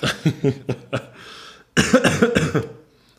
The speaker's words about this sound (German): Entschuldige, jetzt hätte ich mal husten müssen.